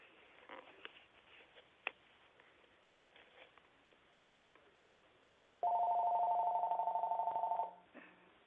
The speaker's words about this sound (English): Okay, somebody's phone is ringing.